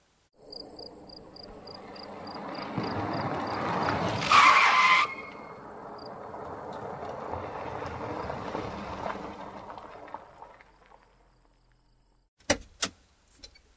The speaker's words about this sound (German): Draußen auf der Straße hörte man verschiedene Fahrzeuge parken. Autotüren schlugen zu.